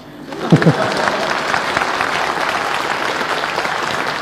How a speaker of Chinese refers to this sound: 你们鼓掌，我能够放松一些。你别看我做了这么多音乐节，这么疯，但是我一讲话就容易紧张。